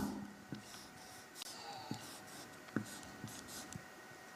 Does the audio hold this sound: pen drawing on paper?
yes